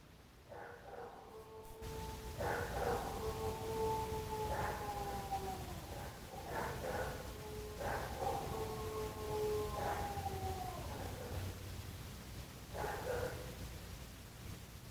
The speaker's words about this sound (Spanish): Y ahora pues tal vez escucharon que era el aullido de un perro. Obviamente un perro eh, un poco más agudo y otro más grave, más fuerte.